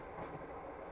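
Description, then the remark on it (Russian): Steady rumble of a train heard from inside a carriage, the wheels clacking over the rails and the carriages rocking in a continuous, fairly loud wash of noise with no voices. “Это звуки поезда, такие, какими мы их слышим, когда едем в вагоне.”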